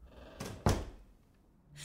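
A door swings shut with a soft rustle followed by a solid thud, then the room falls quiet apart from faint background noise.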